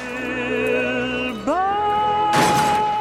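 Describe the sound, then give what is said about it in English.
Singer Frank Patterson holds a long sung note for a film score that slides upward in pitch, then a car crashes into a tree with a loud, noisy, shattering burst near the end while the tone keeps ringing. “He really got into it, and we'd say, "Okay, can you hold that note until the car hits the tree?"”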